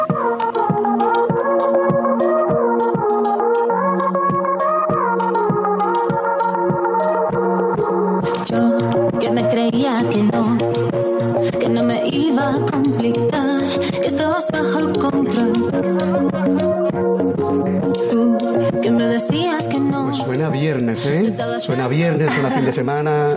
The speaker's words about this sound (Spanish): entonces combinamos la, música electrónica, tenemos un poquito de jazz, un poquito de chill out